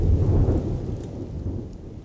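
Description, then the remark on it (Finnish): A deep rumble of thunder rolls in loud, then slowly fades, while heavy rain hisses steadily throughout. No one speaks. “Chimujen asuttaman Pohjoisperuun se on voinut tuoda päättymättömän tuntuisia voimakkaita rankkasateita.”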